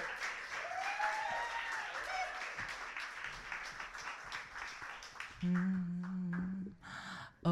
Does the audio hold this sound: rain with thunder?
no